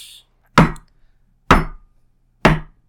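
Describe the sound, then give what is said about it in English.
Three sharp knocks on wood, knocked for good luck, evenly spaced about a second apart, each a loud percussive rap with a quick decay, in otherwise quiet surroundings with no talking. “That's me knocking on wood for your sake.”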